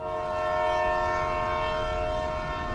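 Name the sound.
train departing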